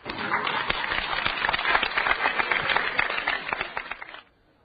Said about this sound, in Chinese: 好了，呃，出来吧，观众都鼓掌了。好了，再次鼓掌来。